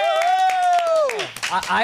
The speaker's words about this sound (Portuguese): uma salva de palmas Nath. pra Nath. Yeah!